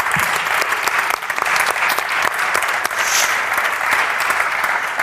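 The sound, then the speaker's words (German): People clap steadily to welcome an author and her translator at a book event, a dense, sustained patter of many hands that holds for several seconds without any voices on top. “Herzlich willkommen. Applaus”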